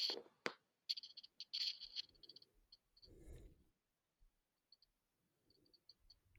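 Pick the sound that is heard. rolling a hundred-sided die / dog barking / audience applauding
rolling a hundred-sided die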